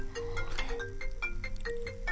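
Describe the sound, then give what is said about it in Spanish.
A doctor's mobile phone ringtone plays a short repeating electronic melody of bright tonal notes in a steady rhythm, ringing continuously at moderate volume with no one talking. “no se asusten es, el, celular del doctor perdón ¿eh?”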